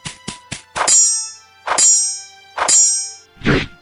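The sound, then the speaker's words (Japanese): Swords clash in a duel in quick succession: a few short strikes, then three ringing metallic clangs that shimmer as they fade, and a final heavy, duller hit. Loud, with no voices. “まず被験白虎流の奥義を得得したければ、一撃でも斬撃を俺に食らわせれば考えてやる。”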